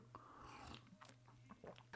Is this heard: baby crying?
no